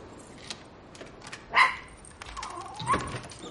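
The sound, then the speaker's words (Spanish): A dog gives two short barks about a second apart, with scattered small noises in between and no one talking. “Ese cojín cuesta 300 dólares. La perra lo monta.”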